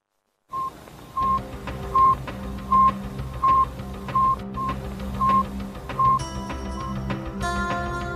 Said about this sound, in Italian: Suona ancora nelle orecchie il bip bip dello Sputnik 1, che in quel giorno d'ottobre del 1957 arriva dallo spazio